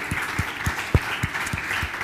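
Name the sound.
audience applauding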